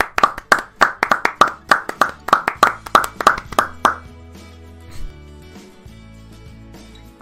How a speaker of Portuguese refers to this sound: Agora as palmas vieram.